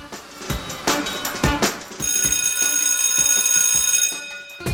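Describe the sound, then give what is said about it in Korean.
A golden bell rings on a radio show: a bright, sustained bell rings continuously for a few seconds with a shimmering metallic tone, following a short burst of clattering percussive hits. No one speaks. “오늘 또 골든벨이 울렸는데요.”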